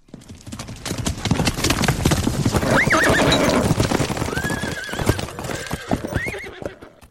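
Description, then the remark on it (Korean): A horse gallops with hooves pounding in a fast, steady rhythm throughout, several high-pitched neighs and whinnies rising over the clatter, loud and without any talking, as Chinese soldiers whip Yu Seong-ryong's horse and drive it toward Kaesong. “개성 쪽에서 말을 타고 달려온 중국인 병사가 유성룡의 말을 채찍질하여 몰고 온”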